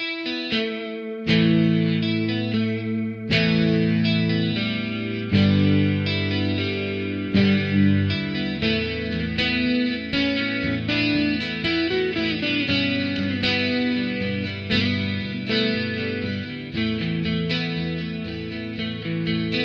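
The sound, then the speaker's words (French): Two recreated instrument tracks, not the original multitracks, one panned left and one right in the stereo mix, play together in a dense, sustained passage with a distorted, effects-heavy tone. Steady and fairly loud, with no voices. “Mais euh, sur le mix, on a une de ces deux pistes qui est à gauche et une autre de ces deux pistes qui est à droite.”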